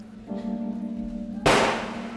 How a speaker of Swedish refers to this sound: och skottet gick av.